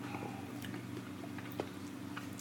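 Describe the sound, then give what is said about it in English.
Quiet wet mouth sounds of someone sipping beer from a glass, a few soft slurps and a swallow, over a steady low background hum with no talking. “And I haven't even here, let me take another sip of this bad boy.”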